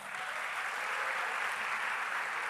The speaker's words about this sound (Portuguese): Bate palmas.